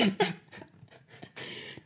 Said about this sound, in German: dann hast du diesen Husten wo man so macht